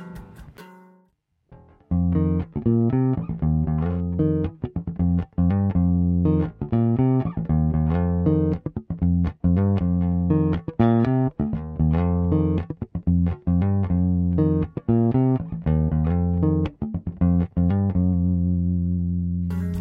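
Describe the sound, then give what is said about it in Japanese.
A precision bass guitar plays a busy, funky line of rapid plucked notes with steady rhythm and strong low-end, loud and alone with no talking, after a brief quiet start. “はい、ということで、プレベ聞いてもらいましたけど、どうでしょう僕の感想としては、こう、ジャズベの方がなんかこう、ガチッとしてて、プレベの方がなんかこう、なんだろう、乾燥したような音をしてるイメージですけどね。”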